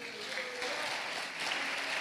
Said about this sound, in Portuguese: Aplauda Jesus por isso.